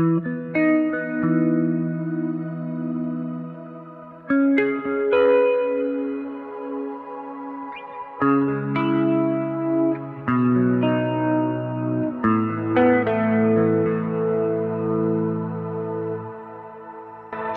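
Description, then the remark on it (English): Guitar notes in the diatonic key played through an ambient effect set to a 13-second decay and a low 15% mix level, building them into sustained chord-like washes, new notes entering every couple of seconds over a lingering harmonic bed. No talking. “mix level uh, of this sound is really really low just uh, that you can hear it a little bit and um, again with these pet sounds you just need to play some notes in the key in the uh, diatonic key and it creates something like a chord in the backing”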